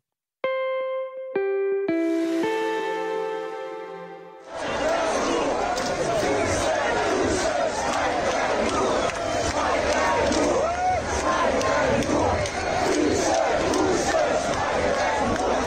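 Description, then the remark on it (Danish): A few bright synth chimes give way to a loud, dense crowd of festive people in Aarhus, Denmark, climbing onto a bus and shouting down to other revellers, a continuous outdoor roar of many voices that stays strong to the end. “Øh, her er det lyd fra Aarhus, hvor festglade mennesker er ved at bestige en bus og står og råber ned til andre feststemte mennesker”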